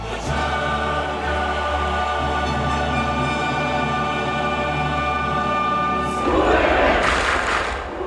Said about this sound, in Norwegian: Det var litt av noen bilder, og når denne Champions League-hymnen runga over Aspmyra i det var faktisk 20 grader og utrolig sånn der, fint vær og flomlys